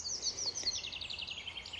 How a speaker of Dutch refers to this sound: Nog eventjes in Frankrijk, in de bergen met vogeltjes, maar op de achtergrond ook de snelweg. Die hoor je hier ook.